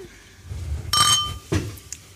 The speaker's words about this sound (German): Na, in diesem Sinne würde ich sagen, stoßen wir nochmal an hier, wenn es schon aufgeht ins neue Jahr.